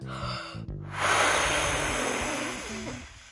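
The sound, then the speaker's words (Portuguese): A voice imitates the Big Bad Wolf of the Three Little Pigs blowing hard to make the straw house fly away, a long, loud breathy gust of rushing air lasting a few seconds, steady and hissy before fading out. “O lobo mau então disse que iria assoprar, assoprar, assoprar até a casa voar.”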